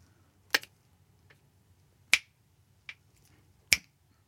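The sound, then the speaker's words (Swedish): Four sharp hand claps clapping out a rhythm, incorrectly, against a tempo of 120. The claps fall in an uneven rhythm, with gaps that shorten toward the end, over a faint low hum and no voices. “Jag klappar fel.”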